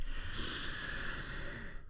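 A long, deep breath drawn in through the nose, a steady airy rush lasting about two seconds, fairly soft, with no talking.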